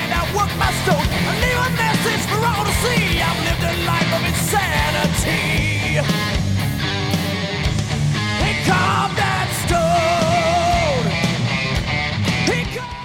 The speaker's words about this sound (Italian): che come sentite sapeva suonare la chitarra, decisamente.